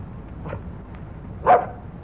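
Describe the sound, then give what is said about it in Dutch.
A dog named Sandy, being told to leave pigeons alone, gives one sharp, loud bark, preceded by a fainter, softer yap, over a low background rumble with no talking. “Let die duiven met rust, hè.”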